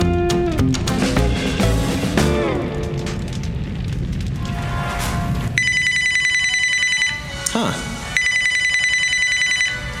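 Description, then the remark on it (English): A telephone bell ringtone rings loudly, two bright metallic bursts separated by a brief pause, following a stretch of busier tonal sound at the start. “Ever heard this ringtone before.”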